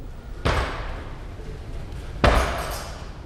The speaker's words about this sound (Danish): Du står på kanten af måtterne, mens de andre løber rundt og varmer op. De slår på sandsække og skyggebokser.